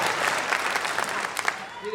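An audience claps steadily for about two seconds to vote for a song choice at a performance, a dense crackle of many hands with a few sharper, louder claps standing out near the end.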